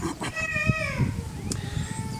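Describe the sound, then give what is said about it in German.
A baby lets out a short, whiny cry that slides downward in pitch, followed by softer fussing sounds over a low background rumble. “Oh, jetzt ist das Baby im Hintergrund.”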